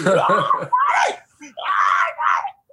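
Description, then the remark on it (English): A man driving on an expressway lets out a loud, shrill scream in the style of a wailing child, broken into several strained bursts with short gaps, unaccompanied. “And while I'm on the expressway, I scream as loud as I possibly can, like a little, like a little fat kid, like ah”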